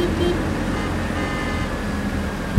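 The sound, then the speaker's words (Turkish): Steady, dense city street traffic on Kurtuluş Caddesi on a very cold day rumbles, with engines droning continuously as cars with hazard lights pull over and block traffic, and a faint car horn tone sits in the wash of road noise. “Dörtlülerini yakıp sağa çeken insan görünümlüler her zamanki gibi trafiği tıkıyorlardı.”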